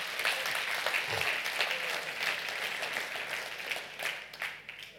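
An audience applauds steadily, many hands clapping in a dense, crackling wash that stays fairly even before thinning slightly toward the end.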